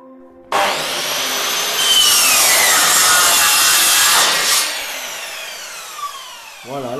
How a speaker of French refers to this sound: j'ai fini de déligner un tout petit plateau pour faire plus tard mon lamellé collé.